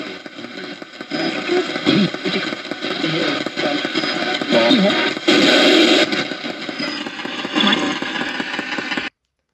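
A Radio Shack 12-587 radio sweeping rapidly through stations, producing continuous loud hissing static broken by choppy bursts and brief garbled fragments of sound, running steadily for about nine seconds before cutting off abruptly.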